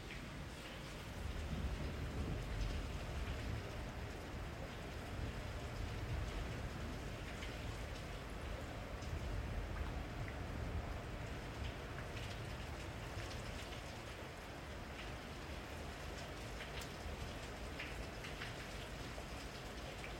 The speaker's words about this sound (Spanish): Eh, es increíble, ahorita hay tormenta eléctrica, no lo voy a hacer, eh, pero ganas no me sobran, ¿eh?